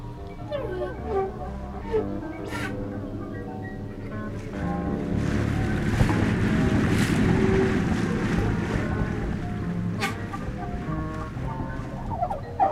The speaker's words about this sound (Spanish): aves migratorias en viaje hacia tierras lejanas.